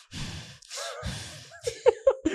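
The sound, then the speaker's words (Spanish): A voice imitates a mother's loud, heavy gasping breaths, two long rasping inhalations followed by a few short, choppy breathy bursts, with no words spoken. “tú le imitas a Consuelo con un poco de respiración”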